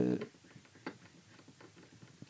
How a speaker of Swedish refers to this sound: Råttorna. Råttor i taket. Ah, shit vad de hörs.